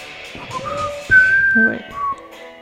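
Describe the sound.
A person whistles a short song melody for a guessing game, with clear pitch changes from note to note, loud and unaccompanied, with some faint background murmur underneath.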